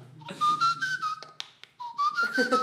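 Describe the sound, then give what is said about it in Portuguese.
A soft, low-volume whistle: two short wavering melodic phrases separated by a brief pause, with a breathy, airy quality and no talking. “E aí eu consegui fazer o... que eu assobi o é stealth. ele é... Ele é deixa baixo.”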